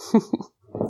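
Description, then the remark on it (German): A dog makes a few short, huffing snorts in quick succession, then a brief pause before a longer raspy, snuffling noise. No one speaks. “Ja, und wenn du ähm, Geräusche im Hintergrund hörst, ähm, wenn du uns äh, schon länger folgst und meine Folgen schon öfter gehört hast, dann weißt du, der Hund ist immer mal mit ähm, auf dem Audio drauf, so wie jetzt gerade auch.”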